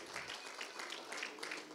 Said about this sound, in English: Praise the Lord. Why don't we give that hand clap to the Lord? Why don't we lift his name up? He's the reason we're here.